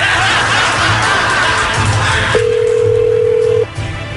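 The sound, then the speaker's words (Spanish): After a stretch of noisy background with faint chuckling, a single steady phone ringing tone sounds for just over a second as a call is dialed, then cuts off. “Ya estamos marcando.”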